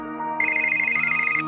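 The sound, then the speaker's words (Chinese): A telephone rings with a steady electronic ringtone: a bright, high warbling tone that starts partway in and holds for about a second, fairly loud, with no voices present. The call is from a father who has just flown in and travelled from Taoyuan airport to a hotel in Taipei. “等你爸爸安顿好了，就会打电话给你的啦。”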